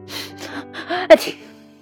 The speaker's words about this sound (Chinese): 金鱼打了一个喷嚏， 都怪你， 他说。